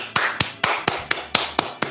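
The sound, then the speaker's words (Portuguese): Steady hand clapping, about eight sharp claps at an even, brisk pace, sounding like a single person applauding over a soft background hiss. “Aplausos.”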